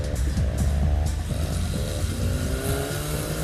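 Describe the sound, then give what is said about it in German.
A man's rattling car engine putters steadily at night, its uneven mechanical chugging and shifting revs filling the whole stretch with no voices. “was will denn der Mann mit dem knatternden Auto von Kalli?”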